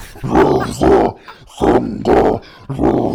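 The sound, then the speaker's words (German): A voice imitates a harsh death metal growl: five rough, guttural bursts in a steady rhythm, loud, each a gravelly roar separated by brief pauses, with no other sound. “Das, was mir viel mehr entgegengestochen ist, was mich wirklich überrascht hat, war dieses Theme, das sie hatte, so richtig derber Death Metal, wo dann einfach nur gesungen bzw. gegrowlt wurde.”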